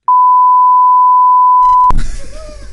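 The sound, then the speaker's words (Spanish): A steady, loud censor beep holds a single pure tone for nearly two seconds, then cuts off abruptly as speech resumes, the tone having masked a spoken name. “Cada vez que, que, dicen mi nombre, en lugar de decir Confuso, se oirá un pitido.”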